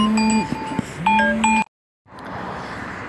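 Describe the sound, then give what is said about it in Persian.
A phone ringtone goes off in the middle of a voice recording, playing a short electronic melody of bright, steady beeping tones with shifting pitch, then cuts off abruptly into a brief silence before a soft background hiss returns. “به هر حال ما ببخشید زنگ خورد وسط ضبط صدا”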